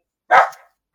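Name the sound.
dog barking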